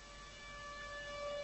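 A train whistle in Yiwu, for the Yixin'ou train running to Spain, blasts in one long, steady, high-pitched tone that swells slightly louder over a second and a half, with no talking.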